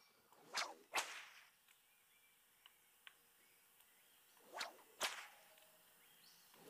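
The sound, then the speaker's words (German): Two pairs of sharp whip cracks in a video game, each a quick swish followed by a loud snap, separated by a pause with a few faint ticks in between. No voices. “Ah, okay, da kann ich jetzt mit der Peitsche wahrscheinlich hier irgendwie.”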